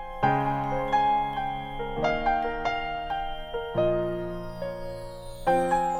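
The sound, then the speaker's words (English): Sustained melodic notes with crisp attacks ring out in a music track, while delicate, high wind chimes shimmer faintly above the tune; no voices are present. “Also, some lovely wind chimes in there.”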